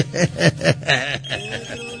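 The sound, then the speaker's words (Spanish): A telephone rings on line 1 of a radio request line with a quick series of bright electronic pulses that slide into a warbling trill, then a steadier tone. It is loud and clear, with no voices over it. “Línea 1, bueno.”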